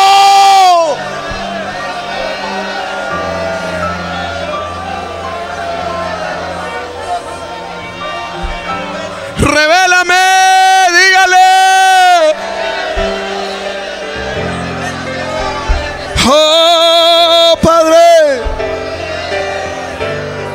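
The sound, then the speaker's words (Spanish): A church audience cries out together in loud, overlapping Spanish-language prayer, a dense wash of voices throughout, with a single strong voice shouting above the crowd in two sustained bursts. “Yo necesito oír el grito, el clamor, la súplica del pueblo.”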